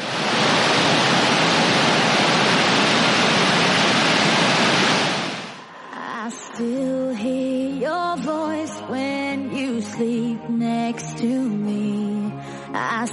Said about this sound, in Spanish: Y al lado hay un montón también de cascadas súper bonitas, como la del Salto de Apombao, que cae menos porque solo tiene 105 metros de caída, pero que hace un ruido al caer. Es este que estamos escuchando.